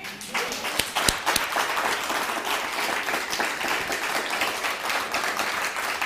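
An audience breaks into sustained applause, a dense wash of many hands clapping at steady volume for several seconds, with a few sharper individual claps standing out near the start.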